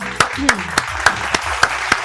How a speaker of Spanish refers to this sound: agradecer nuevamente a la gente que auspicia este programa, eh, un fuerte aplauso para el italiano de Almagro